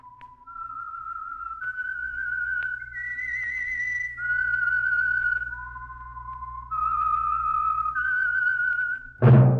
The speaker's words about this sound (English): whistle is your signal for the Signal Oil program, The Whistler.